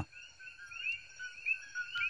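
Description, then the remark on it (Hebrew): A male frog calls in a steady, rapid trill with slight rises and falls, fairly close and moderately loud, over a quiet background with no voices. “זאת צפרדע, זאת צפרדע זכר.”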